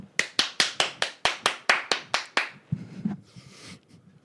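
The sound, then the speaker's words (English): About eleven sharp hand claps in a steady, even rhythm, fairly loud, then a short stretch of soft, fading noise. No voices are heard. “Applause. Mm-hmm. Applause.”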